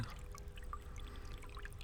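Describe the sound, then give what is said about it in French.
A soft, steady burble of running water, brooks trickling over stones beneath hazel trees, continuous and fairly faint, with tiny bright splashes flickering through it and no voices. “Cet autre bruit, c'est les ruisseaux sous les corbeilles, des coudriers où dorment les martins pêcheurs”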